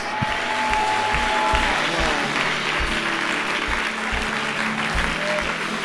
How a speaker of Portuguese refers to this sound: Aplauda Jesus.